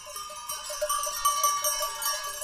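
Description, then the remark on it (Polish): Many small bells worn by sheep clink and jingle continuously in a mountain setting, with faint bleating mixed in; the tinkling is steady, with no talking. “No, owce z górami mi się kojarzą, nie wiem jak Wam.”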